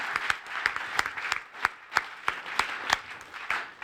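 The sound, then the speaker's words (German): Scattered applause from a small audience welcoming a guest, sharp hand claps at an irregular, lively pace over a steady wash of clapping, moderately loud throughout with no voices. “Genau, schön bist du da und einen herzlichen Applaus.”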